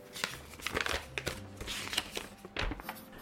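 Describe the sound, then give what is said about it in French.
A sheet of paper that Nico left behind is unfolded, with a run of dry crinkles and crackles and a few sharper rustles near the end. No one speaks. “Et en partant, Nico tout à l'heure m'a laissé un papier et il m'a dit euh, Tiens, ouvre-le si tu veux écouter une chanson qui fait du bien.”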